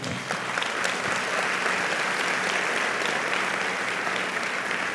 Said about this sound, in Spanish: ¿Alguien puede darle un fuerte aplauso al Señor?